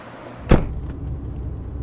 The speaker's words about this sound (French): Et eh oui, ce sont des taxis à hydrogène. Mhm. C'est les taxis de la marque Hype. Tiens, regarde, il y en a un qui s'arrête.